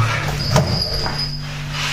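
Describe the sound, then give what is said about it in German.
A chair creaks and squeaks as someone sits down on it at a work table, with a sharp thump near the start and a thin, drawn-out squeal lingering underneath, moderately loud. “Äh, ich setze mich mal hier auf diesen Stuhl.”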